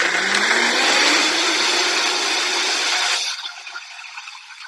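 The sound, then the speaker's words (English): A loud blender runs on high, pre-blending a smoothie, with a dense, roaring whir, then abruptly drops off to a thinner, quieter hum near the end. “So we're going to pre-blend this on high for like at least thirty seconds.”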